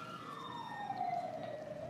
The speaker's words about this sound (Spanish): Oh Dios, está pasando otra vez la ambulancia. Ah, sí, es cierto. Bueno, es que ustedes no lo saben, o, pero estamos al lado de un hospital, entonces...